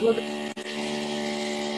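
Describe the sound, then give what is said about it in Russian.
A neighbour's power drill, used during night-time renovation, whines with a steady, buzzing motor tone, briefly cutting out for a split second before running on continuously at a constant pitch. “И а, ты сосед с Дрелем там. Да. все дрелит.”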